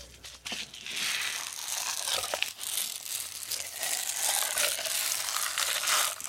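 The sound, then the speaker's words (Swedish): A steady, dense rustling and crinkling from a drum skin being held and spun, a bright hissy texture that keeps going for several seconds with small uneven swells and no voices. “Men om du håller för skinnen och snurrar den?”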